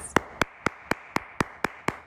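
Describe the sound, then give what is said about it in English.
Eight crisp hand claps in a steady, even rhythm, fairly loud, sounding like a single person clapping alone rather than a crowd's applause. “but regardless, get your little little paws out and let's give ourselves a round of applause.”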